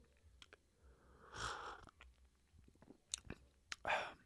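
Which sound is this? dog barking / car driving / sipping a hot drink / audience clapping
sipping a hot drink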